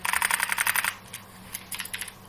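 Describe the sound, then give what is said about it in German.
A fast run of small plastic clicks and rattles, dense for about a second, then a few scattered clacks, as a cassette shifts loosely in the opened compartment of a 1996 Kenwood device. “Ja, so klingen die Kassetten.”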